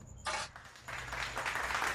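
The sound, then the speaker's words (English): A clap sound effect: one sharp, bright burst of clapping, a brief pause, then a longer stretch of rapid, noisy clapping like a quick round of applause, with no voices. “So if you randomly hear us say insert clap, expect a clap.”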